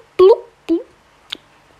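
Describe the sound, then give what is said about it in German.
A voice imitates coffee bubbling through a drinking straw with three short, gulping "blub"-like bursts, the first two loud, the third quieter and sharper, each separated by brief pauses. “sticht mit dem Strohhalm in den Kaffee, damit er blubbert.”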